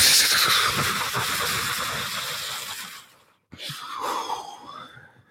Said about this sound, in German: Die beiden schaffen es gerade so mit vereinten Kräften, die, die Türe aufs Dach aufzustoßen, aufzudrücken gegen den schlimm, grausamen, stark blasenden Wind, der voll ist mit rotem Staub.